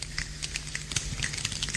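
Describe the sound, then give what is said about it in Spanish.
A large choir of some 60 to 70 people doing body percussion: many hands rubbing together and snapping create a soft, dense patter of light clicks and swishes imitating the sound of rain. “un gran coro haciendo música corporal, con percusión corporal, y vais a ver que imita la lluvia.”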